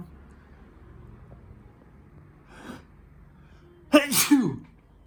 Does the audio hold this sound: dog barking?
no